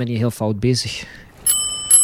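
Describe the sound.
Two bright metallic bicycle bell rings sound crisply in succession after someone speaks briefly, each ring sustained with a shimmering, high-pitched tone.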